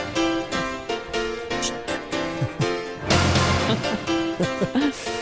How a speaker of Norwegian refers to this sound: Er det noen som husker denne sangen her?